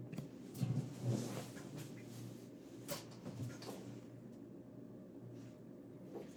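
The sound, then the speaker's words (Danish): A window is opened with a few soft knocks and a rattle near the start and a sharp click around three seconds in, then a low, steady outdoor rumble carries on quietly. “Så må vi lige lytte godt efter, når jeg åbner vinduet her.”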